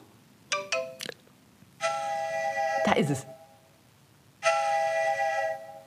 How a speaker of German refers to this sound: Okay, das ist eine alte Dampflok.